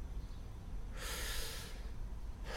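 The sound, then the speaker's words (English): A deliberate, consciously controlled breath: one long airy inhalation or exhalation lasting under a second, then a pause before the next breath begins, with no talking. “when you're breathing, you normally don't. It can be an automatic function, or let me try to do it here.”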